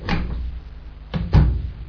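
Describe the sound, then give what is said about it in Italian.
A washing machine door is opened with a soft clunk, then swung shut with two quick, heavier thuds in close succession, with no talking. “Poi, boh, apro e chiudolo la lavatrice”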